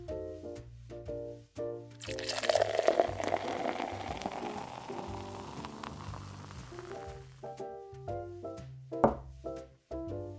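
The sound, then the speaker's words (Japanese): Craftsaurus Pale Ale pours into a pint glass at a bar in Karuizawa with a steady, frothy hiss that swells for several seconds, then fades into light fizzing while soft music keeps playing underneath. “お待たせいたしました、えー、クラフトザウルスペールエールのパイントです”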